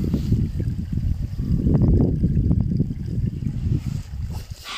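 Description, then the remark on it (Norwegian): Water flows steadily in a river and brook with a continuous rushing, burbling wash and small splashy gurgles rising and falling throughout. No one speaks. “Og så er det jo vann i elva og i bekken her.”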